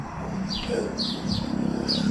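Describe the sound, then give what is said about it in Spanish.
Birds chirp in a few short, bright bursts, roughly four calls spaced about half a second apart, set against a steady low hum in the background. “La naturaleza de los pájaros o la molestia de la moto que me impide hacer este audio mucho más agradable de lo que podría ser sin tantos ruidos”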